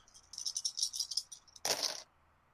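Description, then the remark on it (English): Five dice rattle rapidly in a shaker for about a second, then spill out in a brief, louder clatter onto a hard surface before it goes quiet. Fairly crisp, with no voices. “you are rolling intelligence and luck, which is five dice with a ten threshold”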